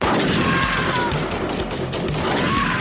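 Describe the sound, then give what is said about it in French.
Loud, dense pump-action shotgun blasts repeatedly in a rapid, chaotic volley, mixed with crashing impacts and a constant roar of background noise for a few seconds. “Je me forge un chemin, à coup de plomb.”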